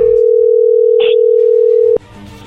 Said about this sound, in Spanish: A ver, no se diga más, vamos a marcarle, no haga ruido, ahí entró la llamada.